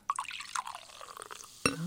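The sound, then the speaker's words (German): Ginger beer poured into a glass fizzes and foams, crackling and popping with a dense patter of tiny bubbles bursting, then a bright ringing clink of glass near the end. “Das schäumt noch.”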